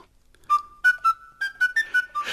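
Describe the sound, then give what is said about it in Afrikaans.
A short, bright melody played on a tin whistle, with about eight quick notes that step gradually upward in a lively rhythm. It is clear, with no voices. “"Ek kan julle help," sê hy en begin hom op sy fluitjie te speel.”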